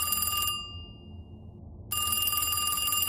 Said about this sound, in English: a really old '90s phone is on the wall, Troy. It starts to ring.